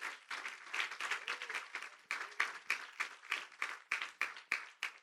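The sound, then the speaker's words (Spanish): A crowd applauds steadily for the Savior, the clapping settling into a regular rhythmic beat toward the end, with no talking over it. “God, un fuerte aplauso hacia nuestro Salvador.”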